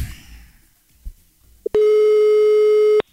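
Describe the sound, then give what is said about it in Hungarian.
A short click, then one long, steady telephone ringing tone of a call to a listener that holds a single buzzing pitch for over a second before cutting off abruptly, loud, with faint background murmur beforehand. “Igen, itt van egy hallgatónk, haló, mindjárt kicsönk.”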